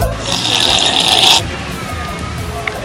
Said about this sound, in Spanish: Después de un sorbo de té